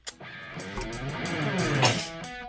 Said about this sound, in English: Bless you. Wow, I was holding that at the end. I was holding it.